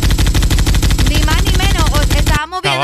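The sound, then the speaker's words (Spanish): Loud automatic gunfire rattles in a rapid, steady stream of shots for over two seconds, with voices rising over the later bursts before the firing cuts off and a voice is heard. “Oíme, se escucha como que es una guerra, vos.”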